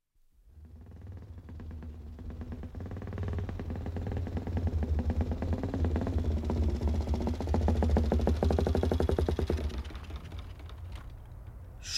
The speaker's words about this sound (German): stieg von seinem Motorrad und wunderte sich über die plötzliche Stille.